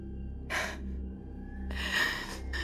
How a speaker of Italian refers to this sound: Mi sono svegliata ansimando e lei era lì, con il viso a pochi centimetri dal mio,